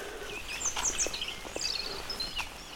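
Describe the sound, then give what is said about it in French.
Several birds chirp and tweet in short, bright bursts, scattered across a steady outdoor hiss of light rain. “Les oiseaux gazouillent quand même, hein, malgré la pluie.”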